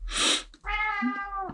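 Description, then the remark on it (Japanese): A cat lets out a breathy, hissing-edged cry followed by a long, drawn-out meow with a rising then falling pitch, loud, with no one talking; the cat is trying to climb onto a person's lap. “ああ、猫が鳴いてる。猫すごい鳴いてます、今。”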